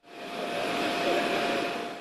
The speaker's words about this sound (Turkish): Önce Devlet Bahçeli'yi ardından Cumhurbaşkanı Erdoğan'ı taşıyan uçak Lefkoşa'ya indi.